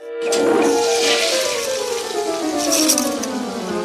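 toilet flushing

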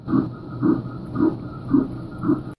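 fetal heartbeat on ultrasound

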